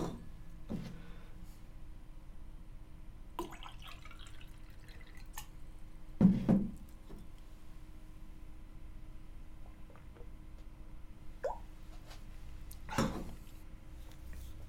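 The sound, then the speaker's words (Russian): Water being poured into a glass and sipped, heard as a few quiet, scattered clinks and small liquid sounds spread over a long, otherwise near-silent stretch, with no one talking. “Сейчас попью воды, расскажу.”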